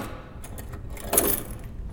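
Keys jingle in a short metallic rattle as the smaller of two keys is taken to unlock an oak door into a church: a few light clinks, then a brighter, louder jangle near the middle before settling again, with no voices over it.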